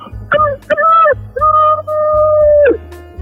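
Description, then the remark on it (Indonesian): A person imitates a rooster's crow, a loud, drawn-out "cock-a-doodle-doo" in several rising and sustained vocal bursts, clear with no other talking. “Jadi misalkan gini kan, pada suatu hari ada seekor ayam membangunkan teman-teman di hutan.”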